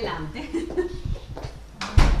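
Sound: front door being opened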